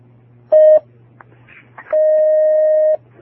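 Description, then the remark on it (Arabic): A telephone call connecting to a phone-in question session with a sheikh: a short electronic beep, a few faint clicks, then a longer steady tone, all over a low background hum with no one speaking. “آه، ناخذ هذا الاتصال”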